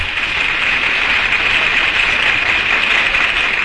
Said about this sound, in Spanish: Gracias por esos aplausos que me han puesto muy nerviosa y tengo que cantar.